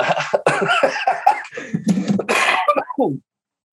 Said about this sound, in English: Ooh, that's a blunt cough right there. This man smokes blunts